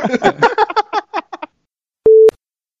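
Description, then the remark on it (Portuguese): A single short, steady telephone busy-tone beep rings out loud and clear after a phone call is hung up, following a moment of quiet after a brief burst of indistinct voice. “Me chame de novo aí, me derrube, vá, já que ninguém quer me ouvir. Pronto, derrubei.”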